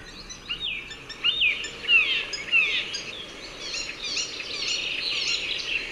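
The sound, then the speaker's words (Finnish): A single bird sings a busy, varied stream of squeaky chirps, whistles and rising and falling squeals, fairly clear over a soft, steady background hiss. “Se on niin hauska, kun siltä tulee niin monenlaisia noita ääniä.”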